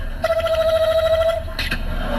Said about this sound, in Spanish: Ah, suena el teléfono allá, ¿eh?